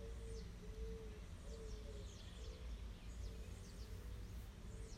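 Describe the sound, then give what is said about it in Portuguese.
Birds sing in repeated quick chirps and trills scattered throughout, with a few lower, steady cooing notes, all over a constant low outdoor rumble; fairly faint, with no talking. “Escuta o barulho dos pássaros.”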